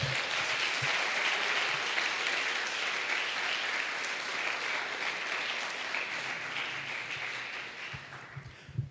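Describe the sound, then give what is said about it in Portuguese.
An audience at a church service applauds the Lord Jesus steadily for several seconds, a dense, even wash of many hands clapping that gradually thins and fades toward the end. “Aplauda o Senhor Jesus.”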